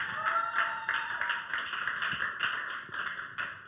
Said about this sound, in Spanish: La historia de Josué, vamos a darle un fuerte aplauso a la palabra de Dios.